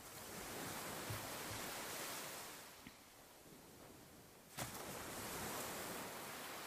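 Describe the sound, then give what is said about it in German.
Broad, steady surf rolls in and out, swelling and easing as waves wash up on the shore, with a sharper splash near the end. No voices, just the continuous rush of the sea. “Und dann lass das Meeresrauschen und das Gefühl, was gerade entstanden ist, noch ein klein bisschen auf dich wirken.”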